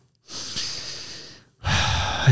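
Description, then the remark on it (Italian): A deep breath taken during a breathing exercise while sitting upright on a chair with shoulders open: a long airy inhale lasting about a second, a brief pause, then a fuller, breathier exhale. No voices are present. “l'effetto dei respiri sani, profondi, rotondi”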